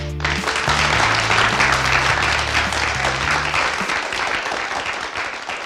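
An audience claps and applauds loudly and steadily, a dense wash of hand claps with low musical notes playing underneath for the first few seconds, holding strong before easing slightly toward the end.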